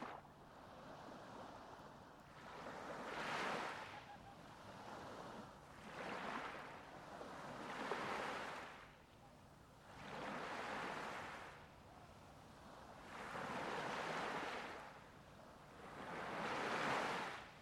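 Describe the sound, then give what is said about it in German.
Ocean waves wash rhythmically onto a beach, each breaker swelling into a hissing rush and then easing back, about every two to three seconds, with a steady soft surf underneath and no voices. “Und beim Ausatmen öffnest du deine Augen, bist gedanklich aber noch immer bei der Strandkulisse, bist gedanklich noch immer am Meer.”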